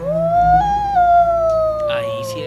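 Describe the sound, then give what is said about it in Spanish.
A single long, drawn-out howl that rises slightly in pitch, holds steady, then slowly sags, loud with no talking over it. “ahí sí es un acto en donde el aullido.”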